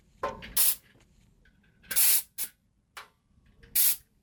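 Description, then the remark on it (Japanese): Sounds from a truck's pre-trip inspection: three sharp, loud bursts of hissing air spaced a second or two apart, with smaller clicks and short hisses in between. No one speaks. “これねトラックのトラックが走る前の運行前に行う点検の音なんですって”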